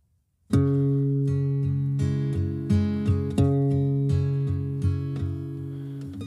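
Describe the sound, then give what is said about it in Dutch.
After a brief silence, the instrumental intro of a Dutch song begins: sustained keyboard-like chords ring steadily, with soft rhythmic pulses about every half second. It is loud and has no voices. “je moet dit nummer gaan luisteren. Het is prachtig, echt, ja.”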